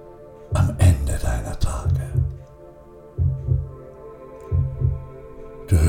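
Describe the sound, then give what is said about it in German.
A deep, muffled heartbeat thumps at a slow, steady pace, each low pulse rising and fading over a faint background hum, with a brief noisy burst near the start. “Du spürst das Pulsieren.”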